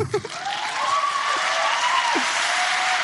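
An audience bursts into steady, dense applause that holds at an even loudness for several seconds, following a brief moment of voice at the start.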